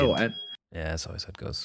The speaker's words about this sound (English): Sorry about that. I think that's my alarm going off.